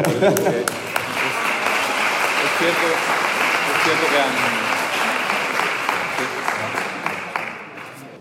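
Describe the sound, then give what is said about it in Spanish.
Sustained audience applause for a Galician surf event being the first in the world to pay women and men equal prize money, a dense steady wash of many hands clapping for several seconds before tapering off, with a voice speaking briefly underneath. “Sí creo que un aplauso”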